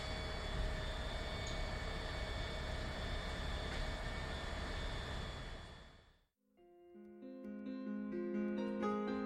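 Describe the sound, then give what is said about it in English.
A subway train roars loudly through a tunnel, a dense steady rumble with a high whine, for about six seconds before it cuts off abruptly and music begins. “Then, all bright lights and noise, the train appeared, covering its body, and I was back in the land of the living.”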